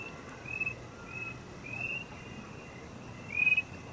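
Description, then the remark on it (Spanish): Birds that have returned to nest chirping in a park empty of people: thin, high whistled chirps repeat every second or so over a soft outdoor hiss, fairly faint, with the clearest call near the end. “Y ahora que los parques no tienen gente y que se escuchan los grillos y que las aves han vuelto a poner aquí sus nidos,”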